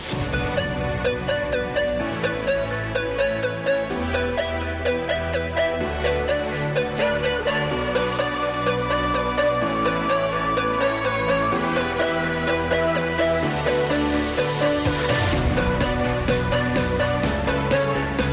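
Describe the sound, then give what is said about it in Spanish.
Upbeat summer disco dance music, chosen by DJ Perico Sainz de Baranda for the Futsal Cope radio show, plays steadily at full volume, with a driving regular beat, bright percussion hits and layered melodic harmonies, no voices heard over it. “Temazos discotequeros veraniegos son la, eh, la temática, perdona, la temática elegida hoy por Perico Sainz de Baranda.”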